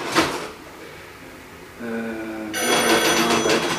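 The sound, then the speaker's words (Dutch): A telephone bell rings loudly, its bright metallic trill building after a short clatter, with no one speaking. “ik word helemaal gek van die telefoon.”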